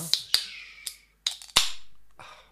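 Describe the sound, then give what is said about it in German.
A beer bottle is opened: a few sharp metallic clicks and clinks, then a brighter pop followed by a fading fizzy hiss. No voices. “Ein bisschen ASMR heute gratis dazu.”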